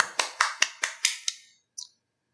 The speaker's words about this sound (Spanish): o sea, motivo de aplausos. Aplausos a Yoshida Kun, por favor.